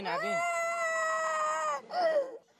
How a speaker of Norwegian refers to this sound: Ei lita jente skriker ut i smerte idet en lege undersøker de opphovnede, såre føttene hennes. Jenta, som tilhører den religiøse minoriteten jasidi, har gått langt for å slippe unna IS, også kjent som ISIL.